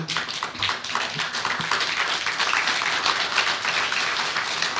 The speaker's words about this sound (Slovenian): Zanimivo je, da sem dobil aplavz, še prednjo sem karkoli povedal